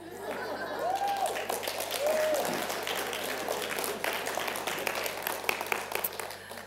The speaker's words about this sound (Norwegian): Eh, gratulerer til alle fedre. Det er farsdag i dag. Yes! Veldig, veldig bra. Det var en litt spredt, eh, spett applaus, syns jeg.